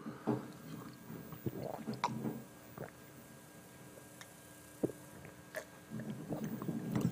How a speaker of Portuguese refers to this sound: Eu vou tomar um copo d'água que está muito seco aqui, desculpe, viu?